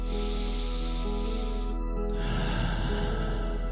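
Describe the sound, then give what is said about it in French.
One slow, deliberate deep breath: a long airy inhale, a brief pause, then an extended breathy exhale, with no talking. “Voilà, là je respire.”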